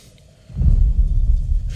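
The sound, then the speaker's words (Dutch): After a moment of near silence, a deep, heavy rumble swells in and holds, a low booming tremor like the ground shaking under a giant footstep: the impact tremor of an approaching T. rex in the night scene of the film Jurassic Park. Nobody speaks. “it's an impact tremor is what it is”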